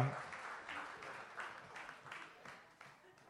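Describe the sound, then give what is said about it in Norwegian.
An audience applauds for a few seconds, a dense patter of many hands clapping with a steady rhythm, fairly soft and even throughout with no voices standing out. “Og så gir vi en klapp til alle de som har vært så flinke.”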